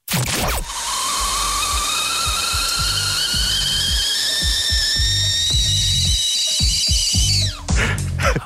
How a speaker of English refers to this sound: Uh, you can't tell me you haven't noticed the high pitched, piercing whistle of the kettle you guys play on your show between segments. That's loud.